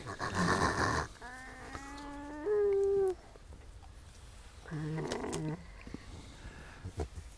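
A raccoon dog gives a short run of animal calls: a harsh, noisy burst, then a drawn-out whining, rising tone, and after a pause a shorter raspy call, fairly loud.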